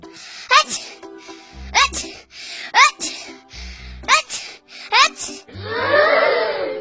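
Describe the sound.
A voice performs a series of big, exaggerated sneezes for the cartoon character Fire Hat, who has caught a cold: about five sharp bursts in quick succession, ending with a longer, breathy, blustering blast, with low thumps in between.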